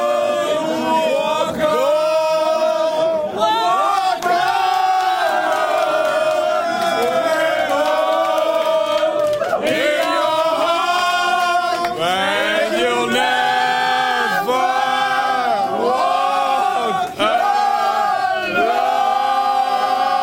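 Members of the VVD party sing a slow, swelling anthem together in a reverberant hall, voices loud and sustained with rising, drawn-out notes throughout.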